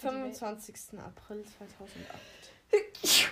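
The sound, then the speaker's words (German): A single sharp sneeze bursts out right after someone finishes speaking, loud, with a breathy hiss at the end. “Gesundheit.”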